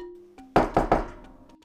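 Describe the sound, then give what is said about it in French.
Three firm knocks on a wooden office door in quick succession, fairly loud, with a short resonant thud after each and silence before and after: Madame Barrymore knocking at the door of Henri's office. “La famille Baskerville possédait de nombreuses terres au sud de Princeton, et Henri était occupé à en faire l'inventaire lorsque Madame Barrymore frappa à la porte de son bureau.”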